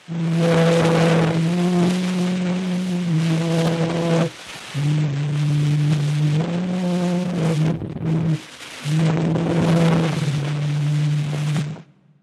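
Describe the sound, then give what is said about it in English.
A very old, scratchy 1860 phonautograph recording of a man, most likely de Martinville himself, singing the French folk song Au clair de la lune in slow, sustained notes in short phrases, buried under constant loud hiss and crackle, with brief pauses between lines. “Here's a recording made on the phonautograph in 1860. The voice on the recording is most likely de Martinville himself, singing the French folk song Au clair de la lune.”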